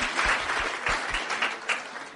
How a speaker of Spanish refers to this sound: les pido un aplauso para ella, por favor.